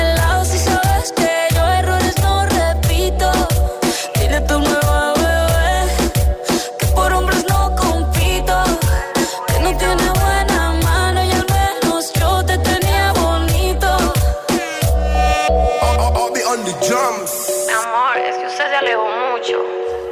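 A loud, polished pop track with a steady, punchy beat, deep bass and a prominent sung vocal melody, playing continuously before the low end drops away near the end.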